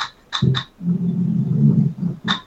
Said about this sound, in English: Oh my god, dude! I thought that? a car was driving by. Did you fart? I farted. That oh. sounded like legit, like a car driving by. That was my ass.